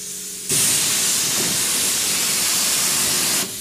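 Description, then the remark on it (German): A high-pressure washer sprays onto a car body, starting at the bottom to remove coarse dirt before the rims, in a loud, steady hissing blast lasting about three seconds, starting and stopping abruptly, with a low mechanical rumble underneath. “Zum Hochdruck.”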